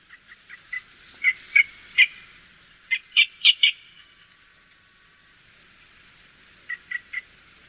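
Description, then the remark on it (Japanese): High, light calls of juvenile yellow bitterns in the reed beds of Okubo farmland repeat in quick rhythmic bursts of paired and triple chirps, some louder. There is a quieter gap midway before a final brisk series. No talking. “吉原を渡る風がよしごいの幼鳥の鳴き声を親鳥に届けます大久保農耕地の豊かな吉原がよしごいの幼鳥の命を支えるゆりかごになっていました。”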